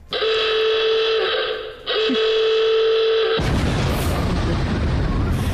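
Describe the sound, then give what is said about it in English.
A game's time-up signal: two long, loud buzzing tones separated by a brief gap, then a sudden roaring explosion-like burst of noise that fills the final two seconds. No one speaks. “If you haven't stopped and the timer goes off, you lose everything everything.”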